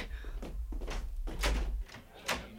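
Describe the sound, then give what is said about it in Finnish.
A door is opened, with a handful of clunks and rattling scrapes over a low rumbling background, ending in a sharper knock as it swings free. “Parasta, kun menen laittaa ove auki.”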